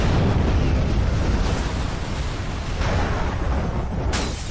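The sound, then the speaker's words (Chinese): A massive explosion at a warehouse at night blasts against its thick iron door and sets the warehouse ablaze, roaring for several seconds as a dense, deep rumbling blast that stays loud and steady, with a brief hissing flare near the end. No one speaks. “可来到仓库门口，却感觉有一股巨大的力量冲击着厚厚的铁门，”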